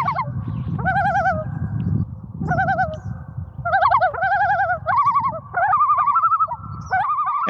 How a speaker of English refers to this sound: The call of the loon, that bird call that you hear continuously throughout Friday the Thirteenth